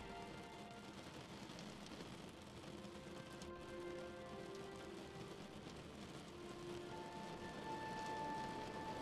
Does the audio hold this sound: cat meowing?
no